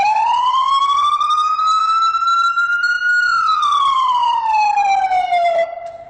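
A loud emergency vehicle siren wails in one long, slow sweep, rising gradually, holding high, then falling back down over several seconds, continuous with no talking; it is the tone used while driving en route along long avenues.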